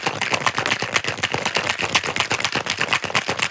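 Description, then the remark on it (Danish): A cocktail shaker rattles steadily with fast, crisp clattering hits, like ice knocking inside metal, keeping an even rhythm for a few seconds with no talking over it. “Og nu shaker jeg lige noget til dig.”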